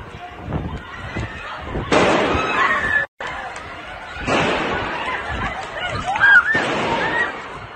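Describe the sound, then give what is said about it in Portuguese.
Gunshots ring out in a busy shopping mall in Copenhagen, Denmark, a few loud bangs spaced a couple of seconds apart, echoing over a noisy crowd of people fleeing the mall, with voices in the background. “Vídeos gravados por testemunhas mostram pessoas fugindo do shopping com sons de tiros ao fundo.”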